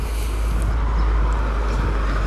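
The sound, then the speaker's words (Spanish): A new car passing by on a street, heard as a steady, fairly loud roar of engine and tire noise with deep low rumble, holding even throughout without a clear rise or fade. “Aquí pasa el colega con el coche, con el coche nuevo, que no lo había visto yo nunca, yo siempre he visto viejo.”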